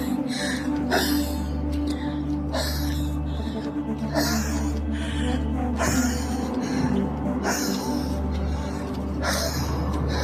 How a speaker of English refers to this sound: Okay, so I'm just walking, and every time I exhale, I sound like this.